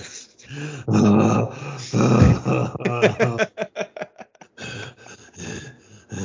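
A man imitates heavy breathing: drawn-out, voiced, grunting exhales, then a quick run of short, rhythmic panting huffs, loud and theatrical, with no other sound around it.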